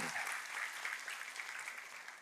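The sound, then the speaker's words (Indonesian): An audience claps together in sustained, dense applause for God, a steady bright wash of many hands with no pauses, loud and continuous throughout. “Tepuk tangannya yang paling meriah buat Tuhan”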